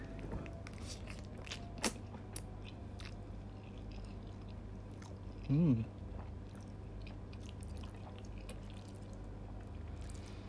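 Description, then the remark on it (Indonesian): Someone eats Indomie noodles with cheese, making soft, wet chewing and slurping clicks scattered throughout, quiet and irregular, broken midway by a brief appreciative hum from the eater. “terakhir tambahin topping cabai rawit uh nih gue mau cobain”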